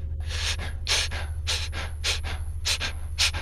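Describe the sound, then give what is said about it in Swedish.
A person imitates the short breathing of a woman with a fever of about 40 degrees: quick, shallow panting, about seven short breathy bursts in a steady rhythm over roughly three seconds, fairly loud, with no talking. “Som att hon gör såna här små...”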